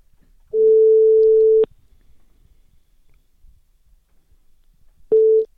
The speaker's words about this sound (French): Il va falloir qu'on lui fasse un jingle un jour quand même, mais en attendant, le jingle, c'est la sonnerie du téléphone. Alors on l'appelle.